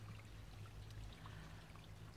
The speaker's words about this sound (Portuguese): Dando aqui o contexto da minha localização, e como já devem ter ouvido aqui o som desta água super relaxante e tudo mais, eu atrevi-me, pessoal, eu atrevi-me e saí de casa. Mas estou mais ou menos a 70 metros da porta da minha casa.